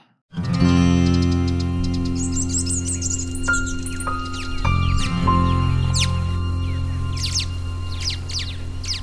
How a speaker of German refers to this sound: Dazu das Konzert der Vögel in den Baumkronen über uns. Es ist die perfekte Art, geweckt zu werden.